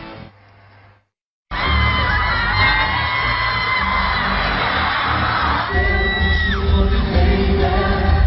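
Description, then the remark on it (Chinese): After a brief quieter stretch and a moment of silence, a concert crowd in Beijing erupts into loud, continuous screaming and cheering as the singer opens the show with an energetic dance, with shrill high-pitched whoops riding over a dense roar of fans. “一开场就以一段劲爆热舞帅翻全场，引得歌迷阵阵尖叫。”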